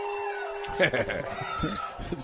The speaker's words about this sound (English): And there's the Howling Wolves.